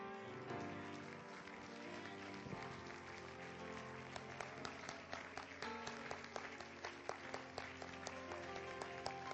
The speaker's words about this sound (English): Can we clap our hands unto the Lord tonight?